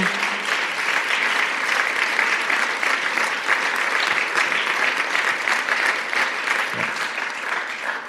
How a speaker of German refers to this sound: unsere Liebe zeigen mit einem herzlichen Applaus. Vielen, vielen Dank euch allen.